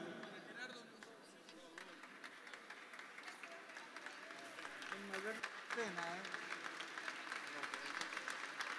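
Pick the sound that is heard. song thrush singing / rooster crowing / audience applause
audience applause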